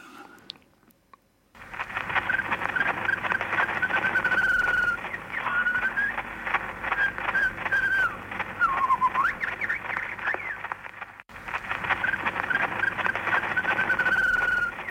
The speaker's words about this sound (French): Donc ça, c'est le premier enregistrement d'un oiseau en 1889, hein, par un enfant en plus. Hein. C'est incroyable quand même.